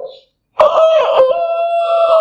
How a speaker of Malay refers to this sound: Sagi dengar kokok ayam lah. ha, tu ayam hutan punya tu